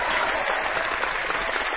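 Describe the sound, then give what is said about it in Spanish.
A burst of applause sound effect, dense and steady, with many hands clapping at once in a continuous crackling wash that holds at the same loudness throughout the short stretch, with no voices. “imagináis quién ha puesto esos aplausos.”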